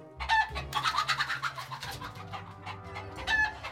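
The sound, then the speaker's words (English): Two chickens in a barn cluck in a quick, continuous series of short calls, fairly loud, as they gobble up buttered-popcorn-flavored powder put down on the floor, with a steady low hum underneath and no one talking. “And get these two chickens over here.”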